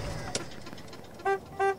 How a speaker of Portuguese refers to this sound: ele dá uma buzinada de leve e respira profundamente, tentando se acalmar, ou pelo menos parecer confiante.